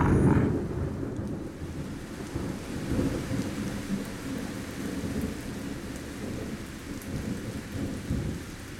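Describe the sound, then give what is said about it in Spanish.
A heavy thunderstorm: steady, dense rain pours throughout while deep rumbles of thunder roll underneath, loudest at the start and swelling again midway. No voices. “Afuera la tormenta se descalabró, zombiéndose en el agua.”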